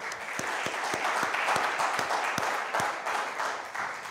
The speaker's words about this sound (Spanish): Dele pues un aplauso, Señor, por favor.